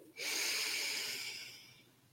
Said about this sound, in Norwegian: Se om du kan trekke et så dypt pust at du fyller ordentlig godt i lungene dine. Puster godt inn.